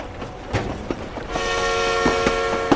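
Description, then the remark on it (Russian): A passenger train travelling to Saint Petersburg in the evening rumbles along the rails with a steady rhythmic clatter of wheels over joints, and a sustained horn blares partway through and holds to the end, loud. “Этим же вечером вы решаетесь отправиться на поезде в Петербург.”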